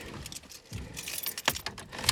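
A bunch of car keys jangles, a rapid series of bright metallic clinks and rattles with a couple of sharper taps, no voices present, as the keys are found before starting the car.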